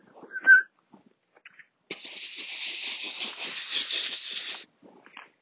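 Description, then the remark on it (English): A person makes a rapid, breathy pspsps hissing sound for about three seconds to call a cat, preceded by a brief high squeak and a few soft clicks. “That's how you call, call cats.”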